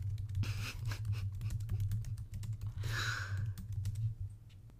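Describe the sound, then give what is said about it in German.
Rapid, irregular clicking of keys on a computer keyboard as someone types a question, typed steadily over a low constant hum, with a brief breathy sigh partway through. “Gib eine beliebige Frage ein.”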